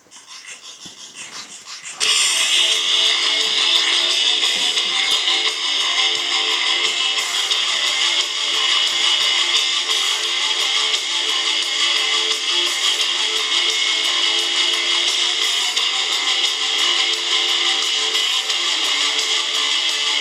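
song recording played

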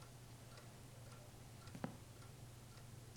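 clock ticking

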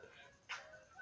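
dogs barking and whimpering

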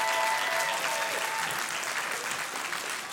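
audience applause

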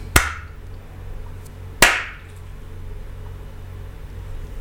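hand clapping

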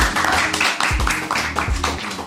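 applause

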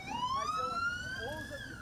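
ambulance siren

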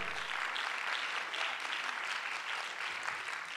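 audience applauding

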